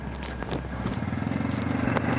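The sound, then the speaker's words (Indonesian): A steady, droning engine hum with rushing wind noise, like riding a motorcycle along a road, continuous and fairly close with a few brief scuffs and rattles. “wah mic mic-nya kurang deket nih biasa kalau podcastan sambil naik motor nih kan harus mic-nya harus dekat harus dijaga terus biar teman-teman juga ngedengernya kan enak ya tadi sempat jauh dikit mic-nya ya”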